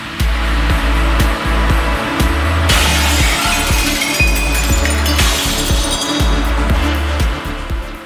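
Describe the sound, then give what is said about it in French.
The glass separating a studio from the street shatters in a bright, crackling burst lasting a couple of seconds after something heavy is thrown against it, with tinkling shards, over a loud, steady pulse of deep rhythmic thuds that continues throughout. “C'était le verre qui délimitait l'ensemble du studio de la rue qui venait de partir en éclats.”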